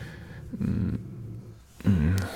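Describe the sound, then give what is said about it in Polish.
A small dog growls softly in two low, rumbling bursts, a brief grumble followed by a slightly louder one, with no one talking. “przepraszam za pieska, troszkę tam coś mruczy sobie”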